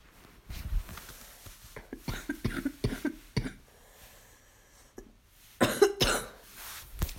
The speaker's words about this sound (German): Husten kann so richtig nervig werden.